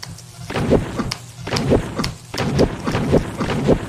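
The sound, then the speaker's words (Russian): Repeated heavy axe blows against a wall in a video game, dull thuds landing roughly every half second to second, fairly loud, each with a short woody knock and no voices; the wall does not break through. “Попробуем ударить топором по стене.”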